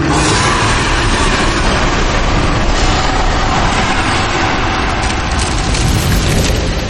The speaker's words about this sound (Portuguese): Cara, vocês veem a forma crescendo e de repente vocês escutam um rugido ensurdecedor naquele ambiente.